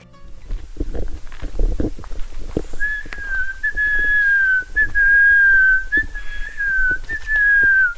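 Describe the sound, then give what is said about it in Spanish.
A person whistles a series of sustained, slightly wavering bird-like notes imitating a quetzal's call to draw out the bird, during a birdwatching outing of 15 people on a Sunday morning in a nature reserve in Villa María, Caldas, with low rustling and handling noise before and beneath the whistling. “Con un silbido similar al del ave quetzal, invoca la especie que por su agilidad poco se deja ver.”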